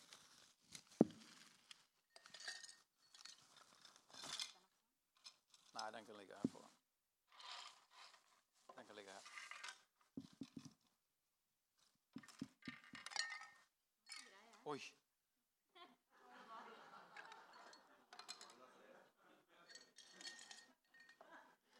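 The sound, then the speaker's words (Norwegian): Small objects are put into a drinking glass, clinking and rattling in a series of irregular bursts, with brief pauses between them and faint voices murmuring at times. “Kan du legge det oppi det glasset der?”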